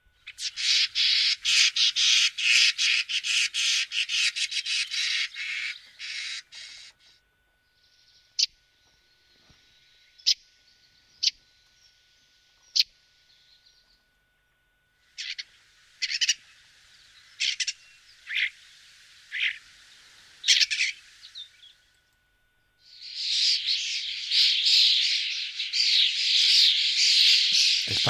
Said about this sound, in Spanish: Mm, mira. Qué bandada. Qué barbaridad. Y en algunos casos miles de ellos, ¿no?